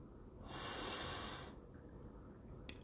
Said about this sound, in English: So I just want to end this podcast with a small gratitude breathing practice that I do with my Facebook group. So I just want you to all take a deep breath in,